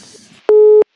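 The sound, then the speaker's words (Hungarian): A telephone busy tone sounds after a radio call-in listener's call drops: a single steady, mid-pitched beep lasting about a third of a second, loud and clear, following faint low murmuring and hiss. “Letette a kedves hallgató telefont megpróbáljuk visszahívni, újra hívni, hosszasan beszélgettünk, megszakadt egy kicsit.”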